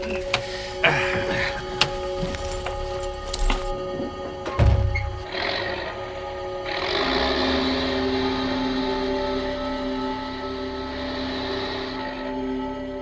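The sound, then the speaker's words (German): A truck engine drones steadily with a low, humming rumble, preceded by a few scattered clunks and thuds, then settles into a smoother, continuous hum as the truck pulls into a parking bay at a deserted rest area at the edge of the wooded hills of Carmine Falls in oppressive summer heat. “bis er den Lastwagen in eine Parkbucht am Rande der bewaldeten Hügel von Carmine Falls gelenkt hatte.”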